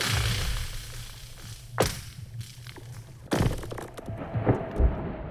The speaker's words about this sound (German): Ganz still liegt er da, der zugefrorene See. Aber beim Schlittschuhlaufen oder drübergehen über die Eisfläche können wir etwas hören. Es zischt, knackst und kracht. Das Eis bewegt sich.